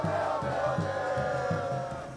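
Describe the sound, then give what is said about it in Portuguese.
A large crowd of São Paulo football fans cheers and chants together in a steady rhythmic beat in support of their team's match with Argentina, a dense wall of voices sustained throughout with no single speaker standing out. “Por isso, todo o apoio da torcida na partida dos jogadores com a Argentina.”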